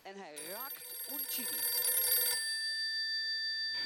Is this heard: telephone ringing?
yes